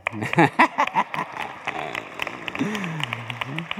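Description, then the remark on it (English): A brief burst of scattered audience clapping, a handful of sharp claps in the first second that quickly thin out, followed by a voice laughing and starting to speak. “oh, don't clap yet.”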